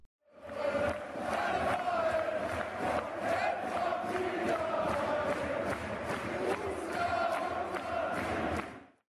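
A large crowd sings a Borussia Mönchengladbach football fan song in unison, a dense, sustained mass of voices with a steady rhythmic pulse of regular beats running through it at constant loudness.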